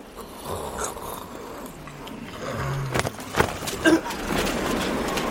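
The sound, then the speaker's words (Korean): A person lying asleep in warm lodgings snores in slow, raspy breaths, each one a rough, rattling drone that swells louder toward the end, with no talking. “코를 골기 시작했다.”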